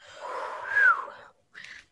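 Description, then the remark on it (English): A breathy exhale turns briefly into an accidental thin, high whistle tone that slides slightly downward and fades, followed by another short puff of breath. It is fairly quiet, with no talking. “I just whistled on accident and I'm so proud of myself because I can't whistle.”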